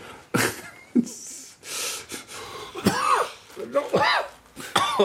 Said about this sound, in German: oh, mir geht das heute nicht so gut. Nichtraucher, Husten und Männergrippe, harte Kombination.